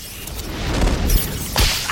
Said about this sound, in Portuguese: Dumbledore recuara a varinha e a vibrara como se brandisse um chicote